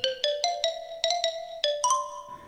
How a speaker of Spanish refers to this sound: Y con el sonido misterioso de una marimba,